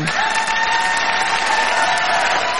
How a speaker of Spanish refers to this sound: a ver, venga, aplausos.